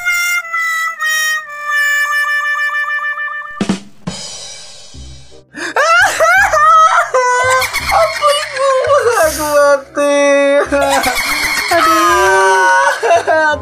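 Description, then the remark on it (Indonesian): Loud, drawn-out high-pitched vocal cries from a person screaming, starting with sustained shrill tones, then a sharp burst and a long run of wavering, rising and falling screams. “Oh, ikut iku jerit ah. Jerit Oh, tak pikir guyu.”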